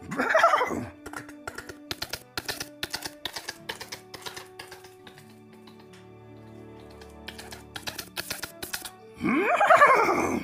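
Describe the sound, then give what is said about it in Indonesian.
A voice imitates a horse's whinny twice, one quavering call at the start and another near the end, with a steady patter of sharp, keyboard-like clicks filling the gap between them. “Ketemu sama kuda.”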